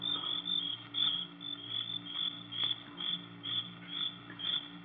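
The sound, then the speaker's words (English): Crickets chirp loudly and steadily at night by a dock in a dense, shrill chorus, pulsing in quick repeated bursts over a faint low hum, with no voices. “But there wasn't a sound except the crickets, shrilling so loudly the noise seemed to beat inside my brain.”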